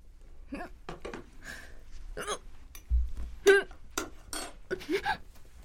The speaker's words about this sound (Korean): 식사 시간 내내 한마디도 하지 않던 그녀는 방금 찜닭을 앞접시로 가져오던 중 갑자기 튀어나온 헛구역질에 자신도 모르겠다는 눈빛을 하고 있다.